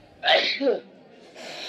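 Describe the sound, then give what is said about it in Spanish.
A single loud sneeze bursts out sharply, a quick breathy explosion followed by a short tailing exhale, then faint background noise. “Hay dos personas que estornudaron y no te has levantado a lavarte las manos.”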